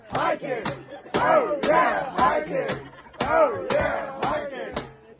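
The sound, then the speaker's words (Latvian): A small group cheers and whoops with loud, rising shouts while scattered sharp claps ring out at uneven intervals, continuous for several seconds, as people at Kennedy Meadows greet an arriving hiker, celebrating the end of the first section of the trail. “Kenedija medozē tradīcija katru gājēju sveikt ar skaļiem aplausiem un ovācijām, svinot pirmā posma noslēgumu.”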